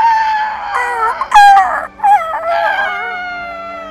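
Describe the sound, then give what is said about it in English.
People shriek in high, wavering voices, imitating pterodactyl screeches: a loud, strained squawking that rises and falls in several overlapping bursts over about four seconds, with brief breaks between cries. “And at the end, we make uh, pterodactyl sounds.”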